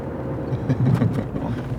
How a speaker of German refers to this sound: Den Rhein zur Linken fährt Thorsten mit dem Auto 20 Minuten zur Anlegestelle.